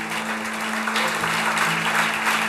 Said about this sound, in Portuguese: E se você crê e concorda, aplauda bem forte ao nome santo de Jesus.